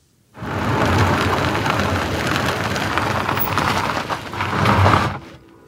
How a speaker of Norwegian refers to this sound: Og så var det en bil som rulla bortover. Mest sannsynlig på sine dekk.